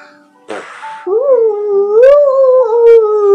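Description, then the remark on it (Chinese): A breathy puff of air gives way to a long, hollow hooting tone that wavers and slowly rises in pitch, like blowing across a bottle opening, seemingly imitated by a voice. “”对着瓶口吹气的声音发出来一样。”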